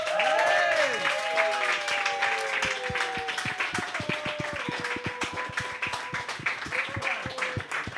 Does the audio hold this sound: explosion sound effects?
no